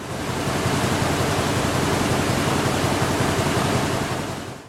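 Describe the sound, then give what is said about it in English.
A dense, continuous rush of rustling paper, used as a transition sound effect, sweeps by for a few seconds, loud and steady before cutting off abruptly, with no voices. “Did you hear the little papers going by?”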